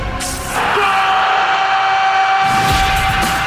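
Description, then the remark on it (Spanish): Players in a football match played among vineyards and irrigation ditches shout a long, drawn-out cry of goal. It is a loud, sustained yell that holds for about two seconds before breaking off into rough, open-air background noise. “Mientras el grito de gol está ahí entre acequia y acequia.”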